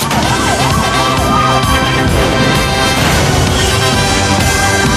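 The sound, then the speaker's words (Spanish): A loud wailing siren of a false alarm sweeps up and down in pitch, its cycles clearest early on, over a dense, constant roar of background noise that fills the whole five seconds. “Falsa alarma.”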